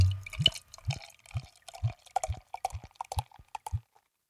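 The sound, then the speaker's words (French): Beer glugs out of a bottle into a glass in about nine steady gurgling pulses, each with a hollow bubbling ring, poured down to the last drop, before the pour trails off into silence. “Euh, ah, j'ai fait. jusqu'à, la dernière, jusqu'à la dernière goutte.”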